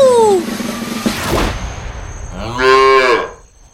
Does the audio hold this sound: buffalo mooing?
yes